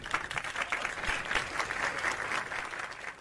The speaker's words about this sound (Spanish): Eh, yo creo que es el bajo, pero a ver, los otros efectos sí se escuchan. El aplauso.